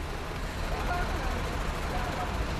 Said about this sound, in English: We're at the central bus station in Rio.